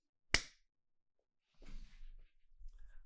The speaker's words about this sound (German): und klatschen. 3, 2, 1.